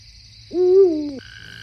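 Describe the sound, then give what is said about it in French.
A Eurasian eagle-owl gives a single deep, drawn-out hoot, fairly loud, against a steady high-pitched insect-like whine and a faint low rumble in the night background. “Il est avec une longue vue et il essaye de voir un hibou grand-duc.”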